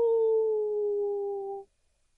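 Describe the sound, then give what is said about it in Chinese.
A single wolf howl, a steady mid-pitched wail that sags slightly in pitch, holds for about a second and a half, then stops abruptly, leaving silence. No one speaks. “哦，狼群总是在晚上出没，他们的眼睛在漆黑的夜里发出幽幽的绿光。”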